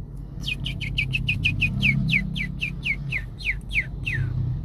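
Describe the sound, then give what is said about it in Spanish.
A bird sings a fast series of about fifteen sharp, descending chirps, evenly spaced and slowing slightly toward the end, over a low steady background rumble. “Todo estaba tranquilo y solo se oía de vez en cuando el canto de algunos pájaros o el gritito agudo de un mono.”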